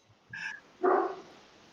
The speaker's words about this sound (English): Can you guys hear my dog? He's barking yes.